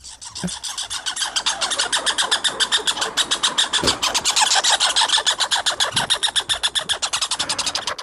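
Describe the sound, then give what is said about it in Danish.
Two American red squirrels fighting, producing a rapid, raspy chatter of dense pulses that runs steadily for the whole stretch, loud, with no voices. “Det er to amerikanske røde æren, der slås.”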